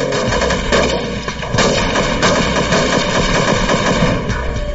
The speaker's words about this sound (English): Suddenly, the van's rear doors open and the gang begins shooting at law enforcement. A SWAT sniper inside one of the chase cars returns fire.